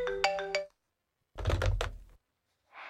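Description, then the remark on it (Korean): A short burst of an electronic phone ringtone with bright, pulsing tones, followed after a brief pause by a dull clunk and a soft hiss at the end. No one speaks. “전화 왔네?”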